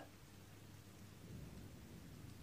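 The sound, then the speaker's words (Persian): Heavy rain drums steadily on a tin roof, growing heavier, a dense, continuous wash of patter with a low rumbling undertone throughout, fairly loud, with no voices. “بارون روی شیروانی شدید تر میشه و از خواب میپرم”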